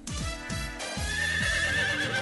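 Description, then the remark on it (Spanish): A horse neighs loudly, a shrill whinny with a quavering, descending pitch that pulses through several rapid bursts before trailing off into a sustained high squeal. “Ay, pero mire quién llegó. El pony.”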